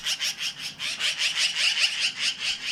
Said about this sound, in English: All of it accompanied by the magpie's call, which is not exactly the bird world's sweetest.